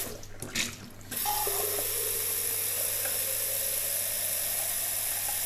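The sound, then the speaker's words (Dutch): Warm water pours steadily from a tap, a broad, even hiss that starts abruptly after a second of scattered clatter and keeps flowing at constant loudness to the end. No one speaks. “Daar gaat zoveel liter water verspilling.”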